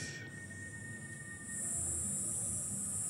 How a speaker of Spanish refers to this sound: Y bueno, ya es de noche en Ipané, os está oscureciendo y hace calor húmedo, suenan las cigarras.